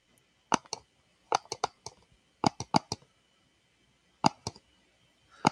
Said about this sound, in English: That is a mouse. Who clicks like that?